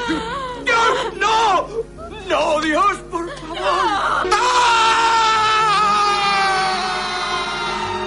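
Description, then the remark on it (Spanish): A man's broken, choking sobs and gasps give way to a long, loud, anguished scream that holds and wavers for several seconds, raw: Michael Corleone at the end of The Godfather Part III, on finding his daughter dead. “Al final del Padrino 3, Michael Corleone lanzaba un grito desgarrador cuando comprobaba que su hija había muerto.”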